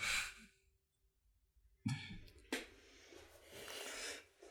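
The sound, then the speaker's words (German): A person coughs a couple of times, sharp bursts followed by a raspy, breathy tail, with a brief quiet stretch before the coughing starts. “Das war der, der gerade gehustet hat.”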